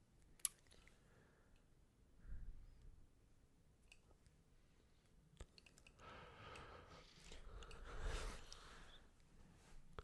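A cat chews on a Kleenex tissue: soft, wet chomping and crinkly squishing in irregular bursts, with occasional sharp clicks, and no voices.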